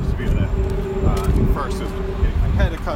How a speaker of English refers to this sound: Uh, finally took the plunge into the cold shower this morning. So like four days in right now. So now in a place where I can have the water on my back uh, completely for about ten seconds here